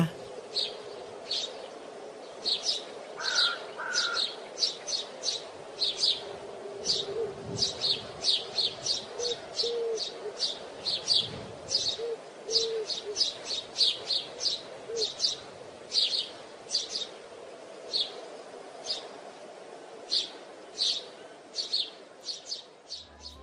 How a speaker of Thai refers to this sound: ฟังเสียงนกร้องแบบนี้ รู้สึกสบายผ่อนคลายดีนะคะ